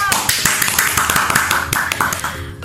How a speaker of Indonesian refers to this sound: Tepuk tangan